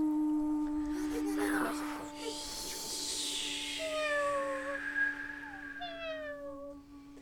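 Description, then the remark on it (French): A black cat lets out a few drawn-out, falling meows at moderate volume, heard over a steady low electrical hum and some faint background noise. “Un chat noir.”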